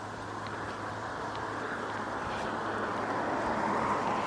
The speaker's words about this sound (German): Also es ist sehr idyllisch hier, natürlich auch windig. Jetzt gerade. Der Wind bläst von vorne. Ich hoffe sehr, dass die Mikrofone das so mitmachen, aber die haben ja beide so einen Puschel.